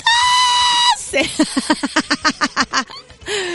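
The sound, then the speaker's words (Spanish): A voice imitates an orgasm: a long, high-pitched squeal like a stepped-on cat, then a quick rhythmic series of short, strained yelps, ending on another drawn-out wail, loud. “Ya cada vez que escucho una, noticia del orgasmo, voy a hacer mi orgasmo eh, que dijeron aquí, pensaron que era el día del gato. el gato pisado.”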